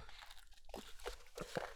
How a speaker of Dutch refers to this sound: Karton maakt ook niet in geluid. Ik kan er een beetje mee frommelen tegenaan kloppen. Nee, dat is net alsof iemand aan de deur staat.